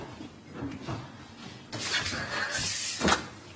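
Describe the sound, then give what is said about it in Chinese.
A door being opened: a few soft low thuds, then a longer rattling scrape as it moves, ending with a sharper click or knock. Moderately quiet, with no voices. “你这么慢才开门啊？”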